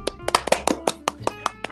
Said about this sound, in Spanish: No, extraordinario los cabros, un aplauso a ellos.